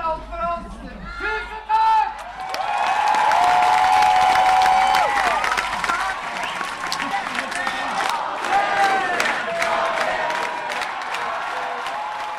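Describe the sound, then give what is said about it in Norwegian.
A large audience in a main hall chatters and murmurs after an improv comedy show as the performers leave the stage; scattered applause rises into a steady wash of clapping and crowd noise, fairly loud throughout, with brief voices cutting through at the start. “Gutta forlater scenen, og summingen blant publikum fyller storsalen.”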